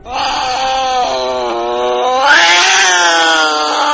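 cat meowing

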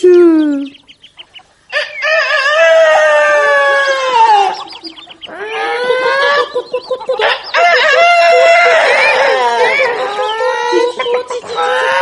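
rooster crowing

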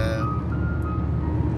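background music playing

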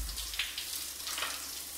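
shower water running

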